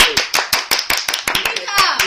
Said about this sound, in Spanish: Increíble, hemos dado un aplauso a Ángel Subiela.